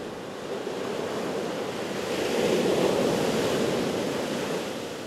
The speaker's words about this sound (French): Et pourtant, écoutez, les vagues de l'océan, le calme, bienvenue sur la côte basque. Là, nous sommes à Biarritz, où nous allons dormir toute la semaine,